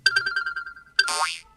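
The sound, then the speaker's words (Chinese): A phone ringtone: a rapid string of bright electronic beeps at a steady pitch, then a sudden loud swooping, springy tone that falls and rises before cutting off. No voices. “哎呀，来电话了！”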